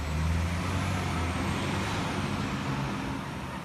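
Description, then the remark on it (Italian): A garbage collection truck rumbles through the deserted streets of Trastevere at night with a deep, steady engine drone, while a broad hiss of air brakes washes over it throughout; no one speaks. “In una scena inquietante, degna di un film di Hitchcock, una ventina di gabbiani si litigano la spazzatura lasciata a terra dai camion della raccolta.”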